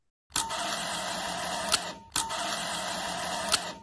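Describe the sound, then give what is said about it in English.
Two identical bursts of an early East German Praktica camera's motor drive winding, each a steady mechanical whir lasting about 1.5 seconds and ending in a sharp click, with a short pause between them; no talking. “I think we just have to play what a good East German early motor wine sounds like”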